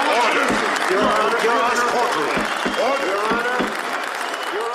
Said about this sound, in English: Yeah, the crowd is going wild. All the cops are super happy.